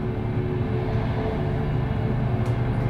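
A steady low rumble fills the inside of a moving train carriage, with a continuous droning hum and faint rhythmic rattling from the wheels, unbroken throughout and without any voices.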